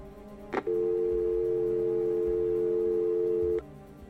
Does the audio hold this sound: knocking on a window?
no